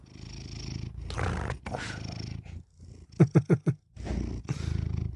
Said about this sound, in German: Man hört äh, da etwas schnurren.